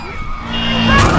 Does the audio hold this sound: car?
yes